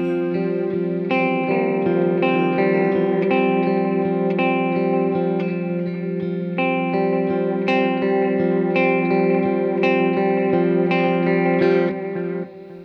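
Sustained electric guitar chords played through a rotary drum-speed modulation effect as the drum speed is raised and lowered, a steady warbling swirl that pulses through the notes at a moderate level, with no talking.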